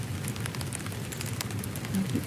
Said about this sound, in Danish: kæmpe, kæmpe træer, som også bliver ramt af regnen. Og sådan Forskellige afstande. Små perkursive dejligheder. Det er næsten ligesom at sove i telt lige nu.